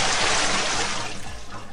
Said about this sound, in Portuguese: Ora, é hora de acordar, né? Balde de água fria nela.